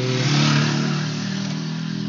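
A loud motorcycle engine revs hard, a steady throaty roar with a slight rise and fall in pitch as it passes, with no voices.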